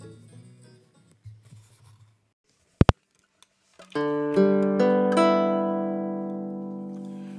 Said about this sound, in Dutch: Met, zoals u al hoort, wellicht aandacht voor de bariton ukulele.